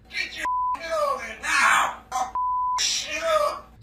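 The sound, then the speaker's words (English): Bud, a talkative parrot, squawks in strained, human-like bursts, mimicking an agitated person's voice in what sounds like a reenactment of a murder, while two steady high bleeps cut across parts of its outburst. “The parrot, named Bud, turned into a stool pigeon, suddenly squawking what sounded like a reenactment of the murder.”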